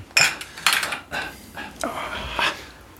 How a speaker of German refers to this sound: Die Bohlegläser klirren nicht so schön. Mm. Sei froh, dass sie voll sind, Mann.